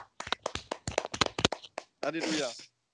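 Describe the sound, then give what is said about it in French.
A few people clap their hands in a quick, uneven burst of sharp claps for about two seconds, ending with a brief voiced cheer. “J'attendais les applaudissements pour l'upset de la semaine, mais bon, visiblement, euh, ça, ne se fait plus.”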